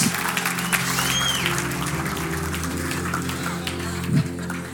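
Steady applause from a crowd for a young man, a dense, continuous patter of many hands clapping at an even level throughout, with no voices standing out.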